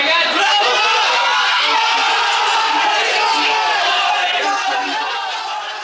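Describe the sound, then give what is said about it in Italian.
A huge football crowd roars and cheers in sustained jubilation as the ball goes from Cabrini to Altobelli, Italy at the 1982 World Cup in Spain, a loud, dense wall of shouting voices that holds steady for several seconds before easing slightly at the end. “che due anni dopo scoppiò in un lunghissimo grido di gioia.”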